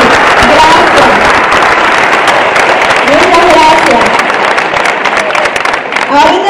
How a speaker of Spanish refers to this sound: Bienvenidos los que están aquí por primera vez. Párense que le queremos dar un fuerte aplauso. Párense los invitados.